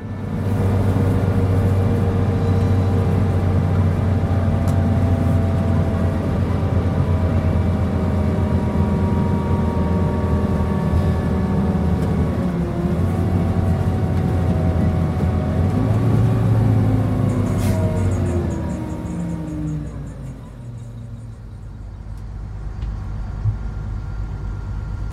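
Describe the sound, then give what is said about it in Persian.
A bus engine drones steadily as the bus drives home at around two at night, with low rumbling harmonics shifting slightly, then winds down and settles to a quieter idle near the end. No one speaks. “ما هم باید قبول کردیم که مسافرت شیرینمون به پایان رسیده و وقتش سوار اتوبوس بشیم و برگردیم خونه حول و حوالی ساعت دو شب بود که رسیدیم شهرمون”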